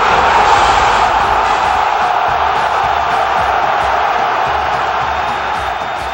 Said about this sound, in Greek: Οι φίλαθλοι του Παναθηναϊκού βιώνουν πρωτόγνωρες στιγμές και δεν σταματούν να φωνάζουν για την ομάδα της καρδιάς του.